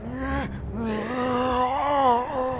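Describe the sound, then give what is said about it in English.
An undead horde moaning at a door: low, drawn-out groaning voices that waver slightly in pitch, continuing steadily and fairly loud across the whole stretch with a brief dip near the start. “you've got an undead horde at your door.”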